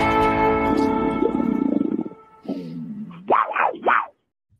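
A big cat roars ferociously, starting with a deep, rumbling growl for about two seconds, then breaking into two loud, rising snarls before falling silent.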